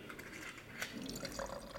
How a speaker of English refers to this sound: pours a sample of one of his whites, a Riesling.